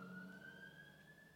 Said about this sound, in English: Oh my God, the siren!